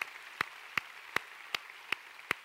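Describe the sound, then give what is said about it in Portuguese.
An audience at a church service claps in a steady rhythm, giving a round of applause to Jesus: six sharp, evenly spaced claps standing out over a soft, continuous wash of hissing crowd noise, with no voices. “Alguém aqui poderia dar um aplauso a Jesus pelo que ele tem feito na tua, feito na tua vida?”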